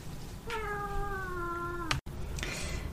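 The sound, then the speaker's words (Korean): A single long, drawn-out meow from a pet cat, with a clear tonal, slightly falling pitch, followed by a brief rustle; no one is talking. “고양이를 키우고 있어서.”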